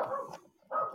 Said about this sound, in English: I can hear dogs barking